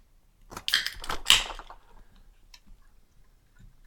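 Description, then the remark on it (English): A can of pina colada is cracked open: a cluster of sharp metallic snaps and a short bright fizz, followed by a few faint, scattered clicks. No one speaks. “like it was a real it was a real solid like crack open of the can.”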